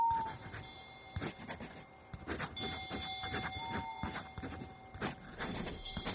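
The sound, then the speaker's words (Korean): A pencil scratches across notebook paper at night by candlelight in a guest room of Seongbulsa temple, in uneven bursts of dry, rasping strokes with short pauses between them, alongside a faint steady tone in the background. “소리라면 연필이 노트 위를 지나는 소리와 푸른 창호지에 검은 그림자로 어른거리는 풍경 소리뿐.”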